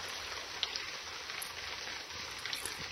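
A steady, even hiss of light drizzle, with a few soft droplet taps standing out, continuing without pause at a fairly quiet level and no voices.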